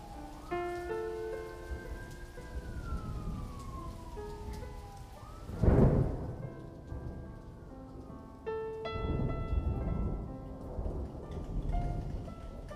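Heavy monsoon rain pours steadily while a deep roll of thunder swells up midway through, then fades back into the constant downpour. Faint sustained tones linger in the background.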